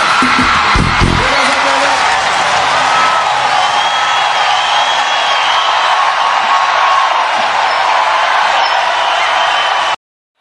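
A loud, dense crowd roars nonstop, with applause blended under high-pitched screams and whoops from many women. The noise stays intense and unbroken for about ten seconds, then cuts off abruptly.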